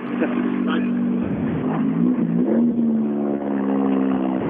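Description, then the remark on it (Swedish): A Renault Clio rally car's engine drones loudly and steadily, its pitch dipping and rising as it revs on approach and comes in, with a voice talking over the engine noise. “Samtidigt som vi har då en Renault Clio som kommer in.”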